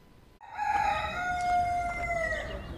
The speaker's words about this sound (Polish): Czy ten znak coś ci mówi? Kogut.